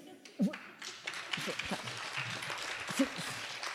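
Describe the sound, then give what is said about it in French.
A crowd applauds in a steady, moderately loud patter of clapping that carries through the whole moment, with a few voices and brief vocal sounds rising over it. “Je, sens qu'il y a des gens qui veulent applaudir.”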